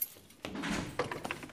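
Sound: keys jangling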